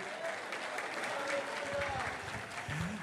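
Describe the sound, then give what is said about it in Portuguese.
An audience applauds steadily for a few seconds to glorify the name of the Lord, a dense wash of clapping with faint voices and murmurs mixed in beneath it. “Se você crê, recebe, aplauda e glorifique o nome do Senhor.”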